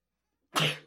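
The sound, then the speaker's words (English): A single sudden sneeze bursts out after a moment of silence, loud, with a sharp breathy explosion that trails off quickly. No talking is heard. “Bless you.”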